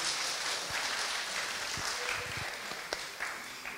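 An audience applauds, a dense, steady wash of many hands clapping that holds at an even level for a few seconds, with a few sharper individual claps standing out near the end.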